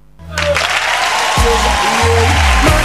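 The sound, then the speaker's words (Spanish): A crowd applauds steadily as a radio show's hosts sign off at the end of the broadcast, a dense wash of clapping that swells in quickly and stays loud throughout, with low hum and faint tonal sounds underneath. “La gente aplaude que nos vamos.”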